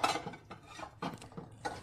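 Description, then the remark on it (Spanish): Dishes and cutlery clink and clatter in several quick, moderately quiet bursts as plates and utensils are cleared from a table. “Voy a retirar los platos en la mesa.”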